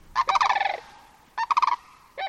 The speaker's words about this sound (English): Others follow them now, flight upon flight, their great wings hush shushing, and the snow geese among them warbling.